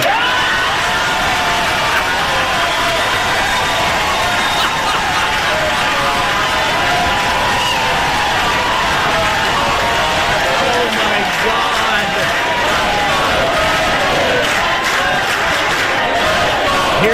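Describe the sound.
A large crowd roars and cheers continuously, with massed voices shouting and chanting in a loud, sustained wall of sound that swells slightly toward the end.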